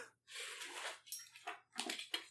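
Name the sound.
person imitating a dog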